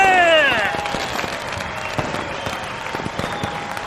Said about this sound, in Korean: 길에서 박수가 터져 나온다.